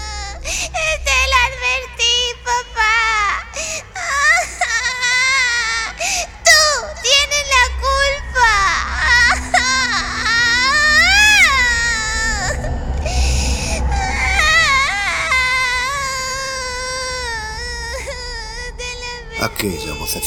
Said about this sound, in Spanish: El incesante llanto de la niña taladraba su cabeza.